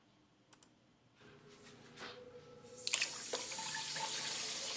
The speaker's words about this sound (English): This is what I'm looking at right now is is water so dark brown that it looks like coffee's coming out of the faucet in Quantico, Virginia.